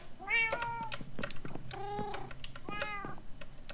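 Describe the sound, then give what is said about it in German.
A cat meows three times in quick succession, each call a drawn-out, wavering tone, with faint clicking like keyboard typing in the background. “Katzen, ihr müsstet hier mal bitte kurz weg.”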